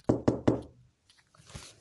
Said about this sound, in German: Ey, nochmal hier dreimal auf Holz klopfen. Auf Holz.